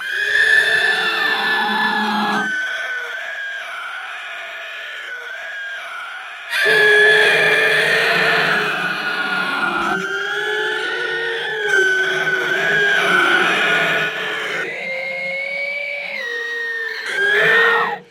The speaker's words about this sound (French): Mais d'abord, à la base, il y a effectivement un cri. Un cri humain si fort qu'il sature presque complètement l'enregistrement.